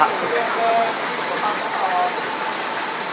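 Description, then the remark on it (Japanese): Loud, steady outdoor roar of background noise at a bus stop in Taipei where someone is waiting for a bus, a constant traffic-like hiss filling the whole moment, with faint murmuring voices buried underneath. “今雑音が激しいですかね今のバス停で待ってる途中なのでかなりあの”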